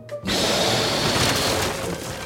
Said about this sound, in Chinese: 大野狼吹垮了皮皮的房子。